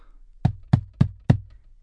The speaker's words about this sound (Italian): Chi è che bussa? Chi è? È Babbo Natale? No, no, sono io. Aprite.